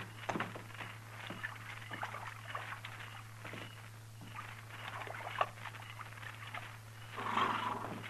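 Horses, including a buckskin, drinking water at night, with irregular wet slurps and splashy gulps that swell louder near the end, over a steady low hum.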